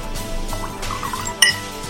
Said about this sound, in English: So pour a glass